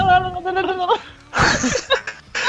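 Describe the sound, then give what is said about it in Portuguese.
A person imitates a turkey gobble, a warbling, rapidly wavering vocal call followed by harsh breathy bursts that blend into laughter. “fazer o barulho de novo de um peru.”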